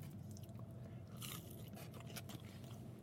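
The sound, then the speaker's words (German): Someone chews McDonald's food with crunchy, moist bites, a series of irregular crackling chomps over a steady low hum, with no talking. “Und weil ich jetzt mal in Ruhe fressen will, mache ich jetzt Schluss und melde mich dann später nochmal.”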